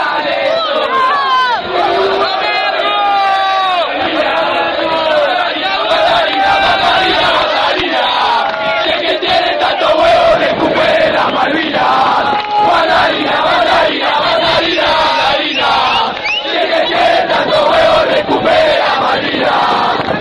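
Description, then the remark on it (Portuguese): A large crowd of football supporters chanting a terrace song titled Recupere Dalmavinas together, loud and sustained for the whole stretch, many voices merging into a rhythmic, rousing roar with no pause. “Vamos ouvir a música Recupere Dalmavinas.”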